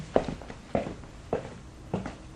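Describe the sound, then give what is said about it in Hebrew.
Four evenly spaced footsteps land at a steady walking pace, each a soft, thudding scuff. No one speaks. “כל רגליים.”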